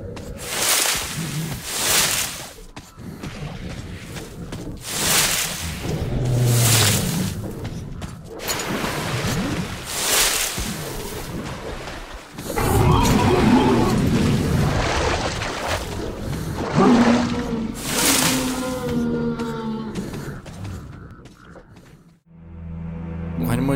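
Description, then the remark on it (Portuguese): Loud, rough howls of video game monsters rise and fall repeatedly over a booming, rumbling backdrop, with several cries overlapping before an abrupt drop near the end. “imagino você jogando lá tranquilo e começa a ouvir vários uivos desse do nada.”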